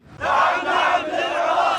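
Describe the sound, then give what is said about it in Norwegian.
A large crowd of al-Sadr's supporters marching in the streets of Baghdad, Basra and Maysan, Iraq, shouts and roars together in a loud, sustained wall of voices, rising sharply at the start and holding steady with overlapping cries throughout. “Al-Saders mange tilhengere marsjerte ut i gatene, i Bagdad, Basra og Meisan.”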